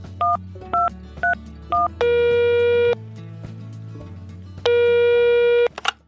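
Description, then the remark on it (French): Four quick touch-tone keypad beeps, then two long, steady electronic phone tones separated by a pause, all over a low background hum, from an answering machine just before its very first message plays. “alors je vous propose qu'on écoute le tout premier message du répondeur.”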